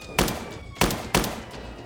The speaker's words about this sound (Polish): Jeden z nich podbiegł do taksówki, grożąc kierowcy, nakazał ruszać. Przez uchylone drzwi napastnik oddał kilka strzałów.